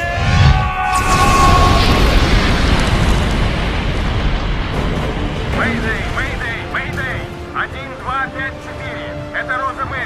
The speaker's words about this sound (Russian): происходит э, взрыв, э, и они терпят бедствие.